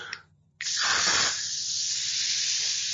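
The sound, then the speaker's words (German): A short click is followed by a sustained, loud hiss of a fine mist of coconut water sprayed from a pump bottle onto a face, lasting over two seconds with no voices. “Ich habe mir jetzt schön äh, Kokoswasser ins Gesicht gesprüht. Es ist so richtiger Nebel.”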